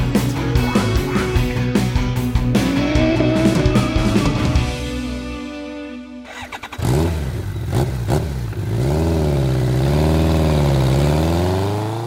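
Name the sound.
motorcycle engine revving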